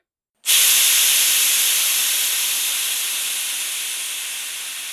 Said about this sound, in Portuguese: Essas panelas possuem uma válvula com pino, que é empurrado para fora quando atinge uma determinada pressão interna. Através desse pino, todo o vapor em excesso é liberado, impedindo que a pressão dentro da panela aumente a ponto dela explodir.